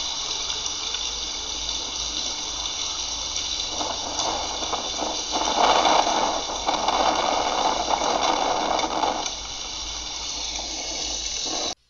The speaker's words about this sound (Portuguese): Esse áudio que vocês vão escutar agora é o áudio do furacão Ida em New Orleans, na Louisiana.